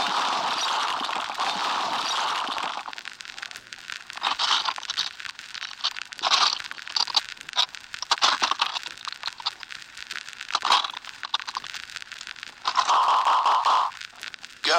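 Heavy destruction noises as a house is being destroyed, with loud crunching, cracking and tearing bursts that surge and break off irregularly for about fifteen seconds, harsh, with no voices.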